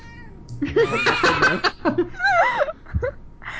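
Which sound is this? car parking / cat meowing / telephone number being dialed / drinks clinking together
cat meowing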